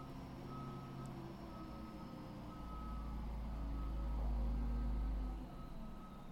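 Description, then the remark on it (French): A large truck reverses in the street, its backup beeper sounding a steady repeating tone over a deep engine rumble that swells midway before easing off. No one speaks. “Et peut-être que dans le spectacle du moment présent, tu peux entendre euh, la mélodie du gros camion euh, dans la rue.”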